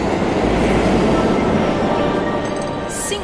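A train rumbles loudly and steadily at a station platform, a dense low mechanical roar filling the scene, with a brief high squeal rising near the end.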